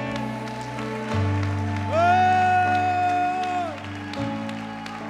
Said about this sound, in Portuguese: Dê um glória a Deus e aplauda o Senhor e adore.